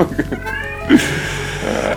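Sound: cat meowing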